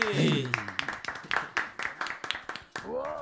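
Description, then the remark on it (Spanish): Sharp, steady clapping, like a few people applauding at a quick, even pace to welcome a guest, with voices heard at the start and again as the clapping fades. “Y con un fuerte aplauso vamos a recibir”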